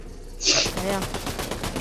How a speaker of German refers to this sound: es schießt über Wände, Alter. Die Schüsse gehen so runter, habe ich das Gefühl.